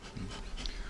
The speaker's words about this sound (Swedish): Så, så där är liksom positiva effekter med sinneslaget om man ger dem lite rök. Det är det ni hör här, det är rökpusten som pustar lite rök på dem.